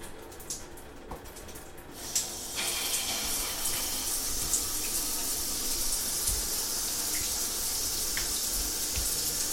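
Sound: shower water running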